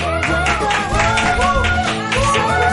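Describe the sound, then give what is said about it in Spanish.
Loud, sustained audience applause welcoming a guest artist blends with upbeat music playing underneath, a dense steady wash of clapping that holds at full strength for the whole few seconds. “Fuerte aplauso”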